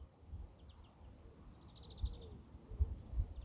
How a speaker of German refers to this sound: Auch wenn ich das Vogelgezwitscher so sehr mag. Also ihr hört jetzt gerade O-Ton live, wie laut es hier so auf meinem Pausenplatz ist.